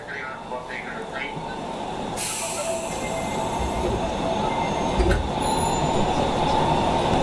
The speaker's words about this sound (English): on board of Osaka subway